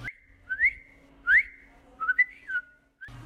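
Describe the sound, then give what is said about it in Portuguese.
A person whistles a short birdsong imitation: a few bright, rising chirps and warbling trills in a high pitch, fairly loud, with brief pauses between phrases and no talking. “Encontraram passarinhos e borboletas.”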